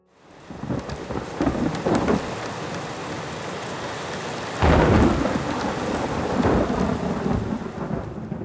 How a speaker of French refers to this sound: Dans la nuit du 1er au 2 août 1848, un orage terrible se déchaîne sur Paris. Des éclairs de fin du monde zèbrent le ciel et illuminent les façades d'une lueur funèbre.